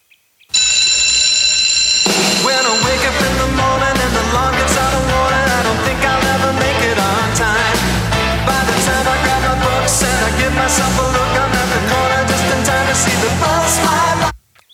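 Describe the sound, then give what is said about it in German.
The theme song intro of the TV series known in German as California High School begins with a brief shrill ringing like a bell, then bursts into loud, upbeat full-band music that drives steadily for about twelve seconds before cutting off. “Das ist eine Serie, die ich voll gern geschaut habe.”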